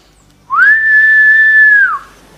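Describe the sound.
A single loud, sustained human whistle at Portinha beach rises quickly to a steady high pitch, holds for about a second and a half, then drops off at the end, with no talking.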